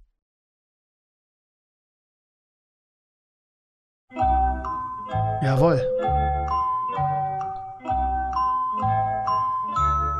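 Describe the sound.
The Jeopardy thinking music plays after a few seconds of silence: a bright, bouncy tune of repeated tinkling, bell-like notes over a steady pulsing beat. A brief spoken word is heard near the start.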